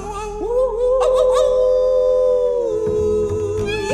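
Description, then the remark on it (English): A long, loud howl at the moon swoops upward, holds a steady wavering pitch for a couple of seconds, then slides down to a lower sustained note, prominent with no talking. “We're gonna hoot and holler and howl at the moon.”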